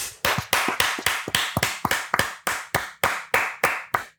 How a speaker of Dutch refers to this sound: Ik wil applaus voor alle vier de meiden. En Femke Bol, Klaver en de andere twee. En een luid applausje voor Femke Bol.